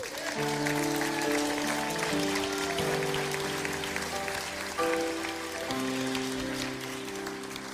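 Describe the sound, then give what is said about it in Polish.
A standing audience claps steadily and loudly for Jesus for several seconds, a dense crackling applause layered over sustained held music chords that shift a few times. “Jak już klaskacie, to zaklaskajmy Jezusowi z całych sił.”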